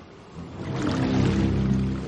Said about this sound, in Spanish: La superficie del agua ondea con más intensidad.